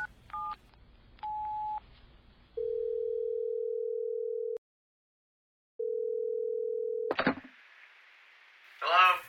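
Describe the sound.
A few quick keypad beeps as a number is dialed, then two long, steady ringing tones with a pause between, until a voice picks up over the phone line.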